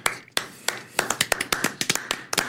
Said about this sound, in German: Applaus. Vielen Dank, vielen Dank.